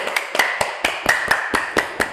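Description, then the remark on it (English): Steady hand clapping, about nine sharp claps in a quick even rhythm, moderately loud with no voices. “clapping clapping.”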